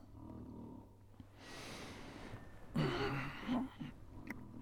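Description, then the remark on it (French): A voice imitates loud snoring: one long, breathy inhale followed by a rough, rattling snort on the exhale, with no talking. “Mon voisin ronfle.”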